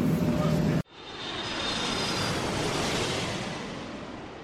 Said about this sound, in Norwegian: Jeg vil jo si at det var overraskende grei lyd på det opptaket der, altså. Ja, tenk deg det. Vi sitter altså bak motoren, der det støyer mest. Og det er ikke editert noe, dette opptaket her.